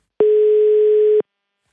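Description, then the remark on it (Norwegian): A single steady telephone ringback tone sounds clearly for about one second, a pure electronic hum, then cuts off into silence, as a call is placed to someone for a chat. No voices are present. “Så da tenkte jeg vi skulle bruke ytringsfriheten vår begge to, så da tar jeg rett og slett og ringer han for å slå av en prat.”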